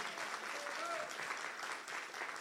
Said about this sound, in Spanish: Vamos a darle un aplauso al Señor si me estás entendiendo.